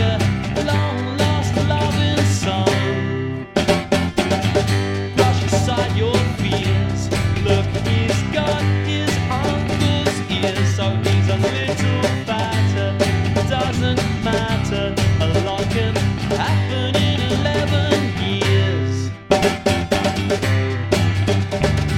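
A gentle indie pop song plays steadily at full volume, with a full band strumming and carrying a melody throughout, pausing only briefly twice; no one talks over it.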